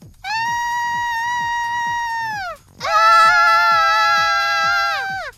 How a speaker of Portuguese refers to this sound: Deixa eu ouvir isso aqui! Me dá essa voz! Cadê o grito de vocês? Ah! Cadê o seu grito agora?